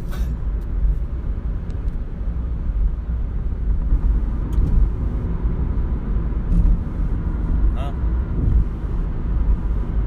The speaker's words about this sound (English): traffic's kind of died down.